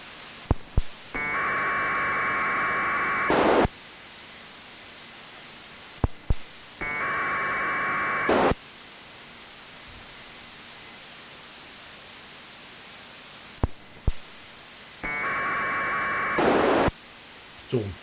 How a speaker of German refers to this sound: Also das ist so ein ganz typisches äh, äh, FSK. Das wird jetzt jedes Mal irgendwas Kleines übertragen, wenn wir genau. diese extra, also wenn wir diesen lauteren Ton hören, sag ich mal.